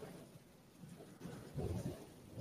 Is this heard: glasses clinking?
no